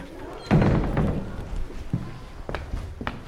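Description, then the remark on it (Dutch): A heavy door thuds shut with a low boom, followed by shuffling footsteps and a few softer knocks and taps as people walk through another door behind closed doors. “en we kijken, nog een deur weer door.”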